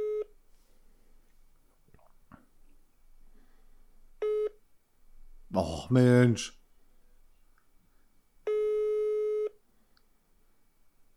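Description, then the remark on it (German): A telephone busy signal after a hang-up sounds in separate steady tone bursts, the last one longer, with a brief exasperated exclamation from a voice between them and quiet background noise in the gaps. “Die Nachricht geschrieben, aufgelegt und das Handy weggeworfen?”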